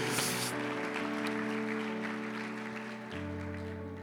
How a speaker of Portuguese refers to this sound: Vamos aplaudir o Senhor pelo nosso cabeludo presbítero.